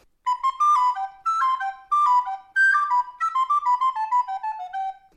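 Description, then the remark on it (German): A soprano recorder, whose lowest note is C, plays a quick run of clear, bright notes, starting in short phrases and then descending stepwise in a steady sequence, with no voices present. “Dann die altbekannte Sopranblockflöte, die auch wieder den tiefsten Ton C hat.”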